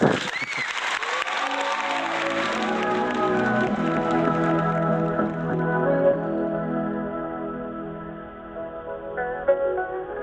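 A burst of audience applause, dense and steady at first, fading as a melodic musical introduction with sustained tones rises and carries on underneath.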